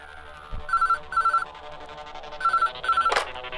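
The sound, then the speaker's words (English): A telephone rings in two pairs of short electronic trills, each burst a quick warbling tone, with a brief click near the end over a soft background hum, as a caller phones in to a radio station. “We've got a caller, so tell me, what's on your mind?”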